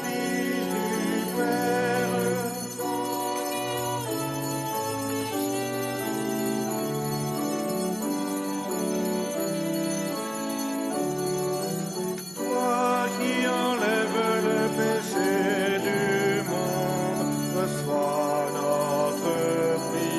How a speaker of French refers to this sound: que l'on entend à l'intérieur de la basilique, à l'extérieur, et eh bien, ce sont toutes les cloches, le bourdon qui résonne euh, du haut de cette colline de Fourvière, où vous suivez en direct cette retransmission de la vigile pascale.